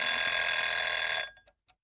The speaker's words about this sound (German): man kann sich halt nicht auf YouTube Eieruhr verlassen